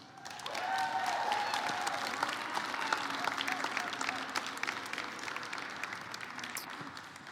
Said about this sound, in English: and so, as tradition here at Gateway, we're going to make a lot of noise, all right, uh, for this person who's going to sh- who's going to come up and share his testimony, all right.